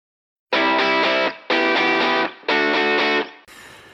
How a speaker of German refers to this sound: Wir hören jetzt einen ihrer wahrscheinlich traurigsten und berührendsten Songs.